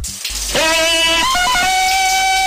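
Cold water gushes steadily from a tap, a constant rushing hiss that starts abruptly and keeps going, with a loud, high-pitched wavering tone ringing over it.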